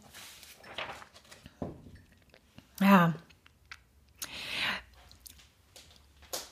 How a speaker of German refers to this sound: Ich brauche mal eben ganz kurz einen Schluck Wasser, Entschuldigung.